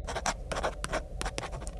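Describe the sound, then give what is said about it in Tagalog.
A pencil scratches across paper in quick, uneven strokes as someone draws in a bedroom, fairly soft, with short bursts of rasping scribbles repeating irregularly and no voices. “Habang nasa kwarto po siya, wala na siyang ginawa kundi ang mag-drawing.”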